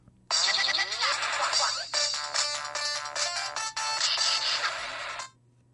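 A mobile phone ringtone for an incoming call plays loud for about five seconds on the way to an amusement park, a bright electronic melody of rapid repeating tones, then cuts off abruptly, with no talking.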